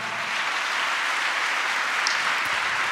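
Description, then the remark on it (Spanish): Sustained applause from an audience for Christ, a dense, steady wash of many hands clapping at an even loudness for the whole stretch, with no voices standing out. “Eso, denle un aplauso a Cristo, ya estoy acabando.”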